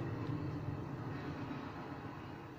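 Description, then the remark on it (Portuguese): A large train rumbles past, a steady low roar with rattling wheels that holds loud for the whole stretch and only eases slightly toward the end. No one speaks. “desculpem o comboio, vamos ouvir o comboio”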